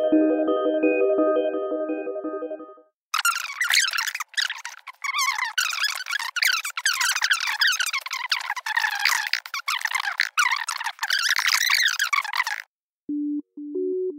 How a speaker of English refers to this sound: We will now play the following audio segment at 10 times speed, so you can practice finding the 0.1 times speed button in your podcast player.